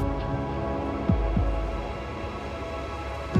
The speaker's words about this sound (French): À Alep, le danger pour la population vient du ciel. Il est 10 heures ce matin et de nouveau le ciel bourdonne. C'est le bruit des avions de chasse, la menace permanente qui fait fuir les habitants.